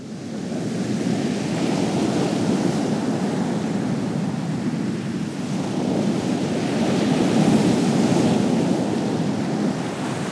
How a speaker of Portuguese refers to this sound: Observe as ondas do oceano.